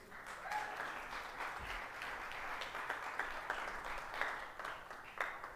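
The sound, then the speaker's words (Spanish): An audience at a church in west Los Angeles applauds steadily, a dense wash of many hands clapping at once that holds at an even, moderate level for several seconds with no one speaking. “Puedes aplaudir, puedes aplaudir si quieres.”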